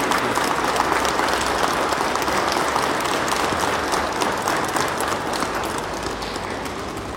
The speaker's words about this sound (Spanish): Un fuerte aplauso para ustedes.